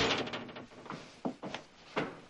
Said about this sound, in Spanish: Coge el manojo de llaves de manos de la chica, abre la puerta y sale.